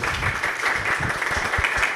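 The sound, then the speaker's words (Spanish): An audience applauds to welcome a guest, a university professor and communication researcher, a dense, steady wash of many hands clapping that stays fairly loud and even for the whole stretch, with no one speaking over it. “para quien pido un aplauso, por favor.”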